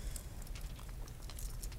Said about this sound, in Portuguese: tira o relógio de ouro do pulso